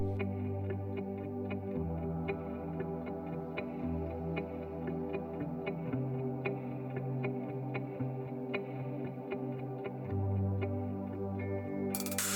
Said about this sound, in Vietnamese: Ừ, thế thì bây giờ sợ quá thì mình nghe nhạc thôi để lấy lại tinh thần để tiếp tục chuyến đi quý vị nhé.